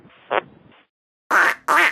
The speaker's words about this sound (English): Hell yeah. Quackety quack. Hell yeah.